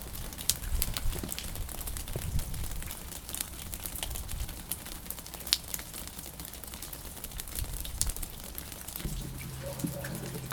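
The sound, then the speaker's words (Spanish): Steady light rain patters and crackles throughout in Carrión, and near the end a low, sustained church bell tone rings in beneath the rain. No one speaks. “Carrión, lluvia ligera y campanadas.”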